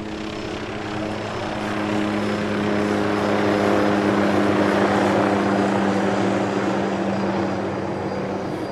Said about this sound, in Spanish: Cuando el FBI tomó el control del caso, estableció una gran operación. Los helicópteros volaban en guardia sobre las vías ferroviarias de los estados fronterizos.